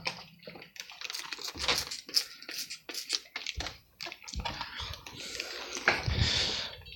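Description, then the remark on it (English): A dog named Batty barks in a series of sharp, irregular bursts, mixed with scratchy, scuffling noise, with the loudest stretch near the end. “Batty's barking one sec.”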